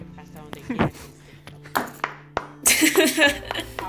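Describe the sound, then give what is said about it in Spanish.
A handful of scattered hand claps, loose and uneven, building to a short denser burst near the end, with voices talking and laughing around them. “ya le aplaudimos, ya.”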